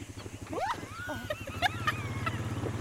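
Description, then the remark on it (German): A quad bike engine rumbles steadily as it drives deeper into the swampland of the Pantanal National Park, with a low, pulsing drone, while birds chirp and whistle in the background. “Sie packt mich gleich auf eine Art vierrädriges Motorrad”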